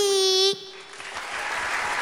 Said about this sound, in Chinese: …在舞台上宣布：“谢谢大家非常用心而且认真的参与神秘的岁末年终小天使活动。”先给自己掌声鼓励鼓励！